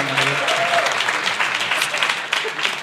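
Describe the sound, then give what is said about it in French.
A crowd applauds steadily, a dense wash of many hands clapping at once, sustained and fairly loud for the whole stretch, with a few faint voices mixed in near the start. “Par applaudissement, mon père.”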